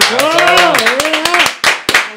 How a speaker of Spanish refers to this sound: ¡Un aplauso!